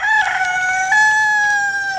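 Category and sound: bird, rooster crowing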